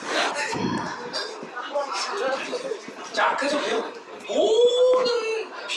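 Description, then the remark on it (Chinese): A human voice imitates a dog, giving short bark-like yelps and a rising, whining whimper near the end, delivered in bursts at a moderate loudness with breathy chuckle-like sounds between them. “啊，不要让孩子跟着我学啊，让让让狗闭嘴啊。”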